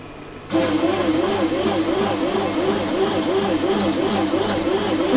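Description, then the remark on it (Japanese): A bread maker kneads dough, its motor grinding in a loud, steady drone with a repeating rhythmic churn as the small paddle, about 4–5 cm wide and 3–4 cm high, turns, starting abruptly after a brief quiet moment. “なかなかすごい音でしょこれ、ね、まあ仕方がないのか、自分でパンをこねたことをね、思えば、これをこのほんのちっちゃな羽でね、こう回転させて混ぜるみたいなんですけど、たったこんなちっちゃい、あの、羽で”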